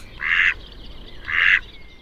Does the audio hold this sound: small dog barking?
no